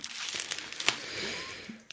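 Bubble wrap crinkling in the background, a dense stream of crackly rustles with a few sharper pops, fairly quiet and steady for about two seconds with no talking.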